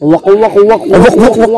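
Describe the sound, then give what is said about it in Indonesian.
A voice imitates the cry of a kuntilanak ghost, repeating a sharp, cackling syllable about six times in a quick, steady rhythm, loud with no other sounds. “kita kita tuh pernah dengar suara kuntilanak.”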